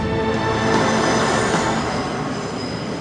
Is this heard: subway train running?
yes